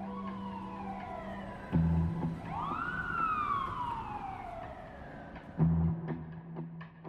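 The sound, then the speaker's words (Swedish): Police and ambulance sirens wail in long rising and falling sweeps over a low steady drone, with two sharp horn-like blasts breaking in; fairly loud, with no one speaking. The police and ambulance are ordered to a flat on Gläntstigen in Säffle, where a man has been reported dead. “Polis och ambulans beordras omedelbart till platsen.”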